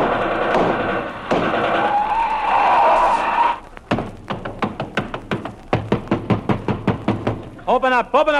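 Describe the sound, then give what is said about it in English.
A rapid series of loud, heavy knocks pounds on the door of Tess Trueheart's house, a dozen or more blows in an uneven rhythm, right after a stretch of singing, with a voice cutting in at the end. “flat top open up before I break the door down.”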